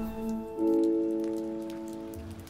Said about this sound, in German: Ein Tag Anfang Oktober. Es ist unangenehm kalt und regnet.